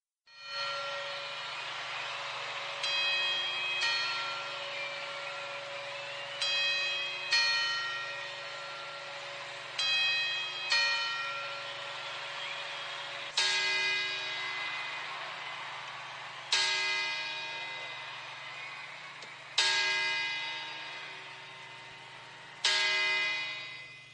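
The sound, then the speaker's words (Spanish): A large clock bell at the Puerta del Sol in Madrid chimes in slow, evenly spaced strokes up to twelve, marking the moment the year is seen out. Each stroke rings out with rich overtones that hang and overlap before the next strike. The resonant tolling sounds alone, with no voices. “y así hasta 12. Y es que faltan muy poquitas horas para que llegue este momento, en la Puerta del Sol, un lugar que ya sabemos todos los españoles, todos los madrileños, que es ese punto en el que despedimos el año.”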